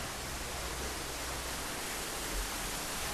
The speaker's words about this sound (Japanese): すごいあもう滝の真後ろから水しぶきを浴びてすごい滝が裏から見れるってすごいですねかなかないんじゃないですかわあ水しぶきがすごい飛んでくる